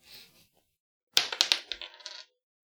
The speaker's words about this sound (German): Da hätte ich gern einen Würfelwurf für. Aha.